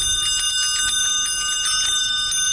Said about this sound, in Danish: Det er en god lyd, den der får. Ja. ja, det, det er til juletid, så har den bjæller på. Det er kanebjæller.